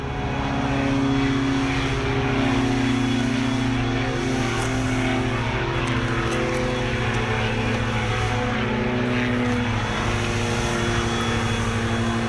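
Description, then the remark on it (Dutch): A propeller airplane engine drones steadily and loudly over an airfield, a constant humming roar with a buzzing tone that holds at the same level throughout, with no one talking. “We vliegen deze kant op, eh, vliegen de motorvliegtuigen.”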